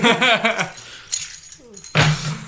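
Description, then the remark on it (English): A brief voice is followed by a faint metallic jingle, then a single loud clatter as keys drop onto a hard tabletop. “Keys on the table, completing the trilogy.”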